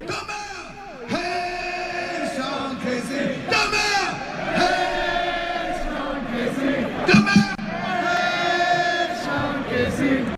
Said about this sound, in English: That is your good friend … leading where? the Italy? crowd. That was in Italy. Leading the crowd in a Sean Casey chant because somebody had a giant Sean a- Casey head.